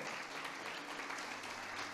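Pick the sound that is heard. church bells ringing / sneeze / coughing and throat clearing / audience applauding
audience applauding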